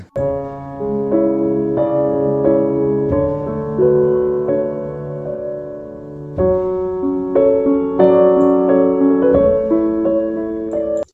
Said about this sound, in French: Enfin, on va écouter une musique.